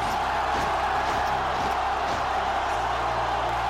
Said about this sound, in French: C'est à son arrivée à Rome qu'un sublime triomphe lui est offert par le Sénat romain. La foule est en délire.